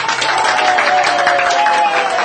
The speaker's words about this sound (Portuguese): Aplaudiram satisfeitos o feliz desfecho do casal.